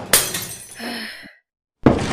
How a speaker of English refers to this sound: You are not gonna solve anything by destroying the theater. Stop punching the mirror.